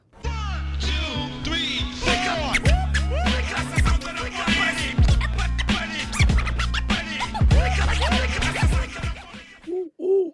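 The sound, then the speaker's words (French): A DJ scratches a vinyl record on a turntable, quick back-and-forth swoops cutting loudly over a steady, bass-heavy hip-hop beat, ending with a couple of isolated scratches. “Scratcher, c'est produire des sons en manipulant d'avant en arrière un disque sur une platine.”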